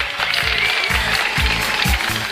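Loud, steady applause from a crowd welcoming the host of the jokes show 笑话大咖秀, a dense wash of clapping with a regular low thumping beat running beneath it about twice a second, and no voices.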